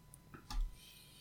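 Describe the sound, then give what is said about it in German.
A single soft computer mouse click against a quiet, faintly hissing background with a few tiny ticks before it. “ich klicke gerade mal auf Johnny Knoxville drauf”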